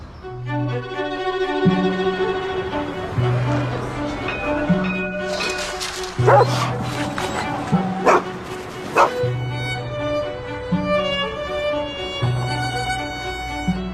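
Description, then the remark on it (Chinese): A few sharp barks from stray dogs in the streets of Istanbul, from the documentary Stray by director Elizabeth Lo, ring out over a steady musical backdrop of sustained tones and a repeating low bass line, with a couple of softer yips in between. “它是导演 Elizabeth Low 从流浪狗的视角，跟随着他们在伊斯坦布尔街头游荡看到的一切。”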